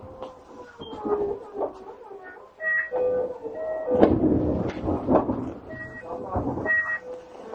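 A Tokyo Metro 7000 series train running on the Yurakucho Line between Shin-kiba and Nerima, with a steady low rumble and stepped, whining electric motor tones that rise and shift, swelling louder in the middle.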